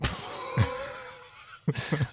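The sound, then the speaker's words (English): A tree frog calls with a few raspy, croaking bursts, a longer droning call in the middle, then two or three quick rough notes at the end. No one speaks. “It's not a cat. It's a tree frog.”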